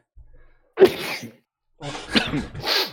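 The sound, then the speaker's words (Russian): A quiet breath is followed by a sharp, loud sneeze, then a second breathy burst of sneezing or exhaling a moment later, with no talking. “ой, сейчас чихну, наверное.”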